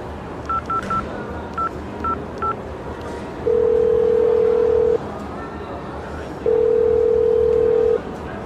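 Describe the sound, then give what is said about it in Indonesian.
A handful of quick, high dialing beeps as someone is called again, then a phone's ringback tone: two long, steady buzzing tones with a pause between them, clear over a faint background hum. “Coba ditelepon lagi.”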